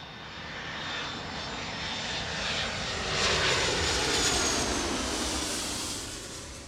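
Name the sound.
airplane engine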